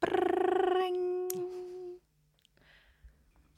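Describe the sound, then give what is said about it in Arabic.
A voice imitates a telephone ringing with a loud, sustained, steady tone held for about two seconds, then breaks off into quiet background noise with a few faint sounds. “آه، اوكي فانا بعمل صوت تليفون فيك فبعمل”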